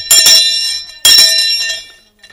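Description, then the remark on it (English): A hand bell, given by a listener, rings out loudly twice, each bright metallic shake leaving a shimmering, sustained ring that fades away, with no talking. “I want to start by begging Guru if and whenever the bell is stolen or lost, please do not call Vladimir Putin.”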